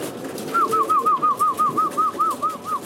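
Very old, retired racing pigeons coo in a steady run of about a dozen soft, rounded notes, evenly spaced, over a low background hum.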